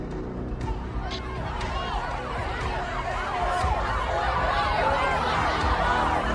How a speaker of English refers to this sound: So, we're at the party pretty wasted when we hear and see several police cars and ambulances whiz by.